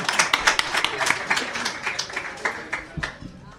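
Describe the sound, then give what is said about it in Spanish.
A short burst of hand clapping from what sounds like a small group, with quick, uneven claps that stay fairly steady in loudness for a few seconds before thinning out. “Un aplauso para usted, cabrón.”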